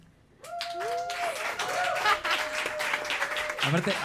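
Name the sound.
studio audience applauding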